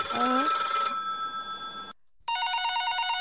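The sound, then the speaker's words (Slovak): A modern landline telephone gives an electronic ring: a bright warbling tone with stacked harmonics, then a brief silence and a second burst of rapid, pulsing trills, loud and without any voices. “No toto už je taká modernejšia pevná linka.”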